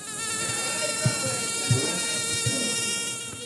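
A steady, high-pitched whine of a mosquito in Latin America, of the kind that carries Zika and dengue fever, hums continuously, with a few soft low thumps underneath and no one speaking.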